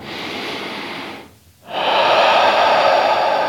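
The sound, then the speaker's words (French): Slow, calm breathing during yoga, seated on the heels with a cushion under the buttocks: one long airy breath, a short pause, then a louder, fuller breath held steady for a couple of seconds. No one speaks. “Respirez calmement.”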